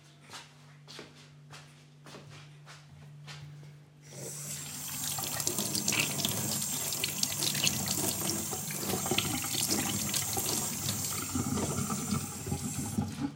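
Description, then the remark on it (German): A row of soft, evenly spaced clicks over a low hum, then a tap opens into a loud, steady rush of running water, splashing unevenly as hands are washed beneath it. No one speaks. “Bisschen die Hände abtrocknen.”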